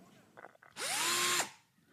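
A cordless drill/screwdriver whirs up to speed, runs steadily with a high whine for under a second, then spins down and stops, loud, after a brief murmur of voices.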